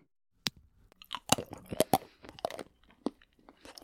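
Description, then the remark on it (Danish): Crisp crunching of someone biting and chewing chocolate, a series of irregular sharp bites and chews over a few seconds with no talking. “Det er lyden af en, der spiser chokolade.”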